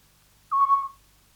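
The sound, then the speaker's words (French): A single soft, whistled hoot from a mother scops owl talking to her young in the nest, a short pure tone lasting about half a second, heard alone against a quiet background. “on peut entendre si on est très, très attentif que la mère, petit duc, parle à ses bébés dans le nid.”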